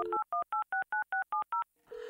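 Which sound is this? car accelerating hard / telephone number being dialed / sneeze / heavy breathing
telephone number being dialed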